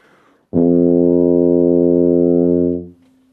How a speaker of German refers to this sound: Also nicht den ganz tiefen unten den Pedalton, sondern praktisch den zweiten Naturton. Das heißt, wenn ich jetzt ein C spiele, ein, ein C lese, dann spiele ich auf der B-Tuba diesen Ton. Und auf der F-Tuba entsprechend diesen Ton.